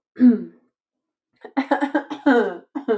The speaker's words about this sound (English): clearing my throat because of the water. Sorry.